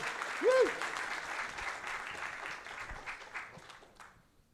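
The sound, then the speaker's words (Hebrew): Steady audience applause at a conference, welcoming the head of an economics forum to the stage: a dense wash of many hands clapping that holds fairly loud, then thins out and fades toward the end, with a brief tonal whoop or voice near the start. “ראש פורום קהלת לכלכלה, קבלו אותו במחיאות כפיים סוערות.”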